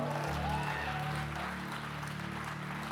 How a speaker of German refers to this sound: Ein Riesen-Hallo ähm, nach Düsseldorf, nach München, nach Zürich, nach Wien. Kann man aus Konstanz, können wir einen großen Applaus geben.